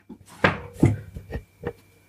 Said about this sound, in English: What are you doing? I'm cleaning those two dishes so then I have space because here I want a space here.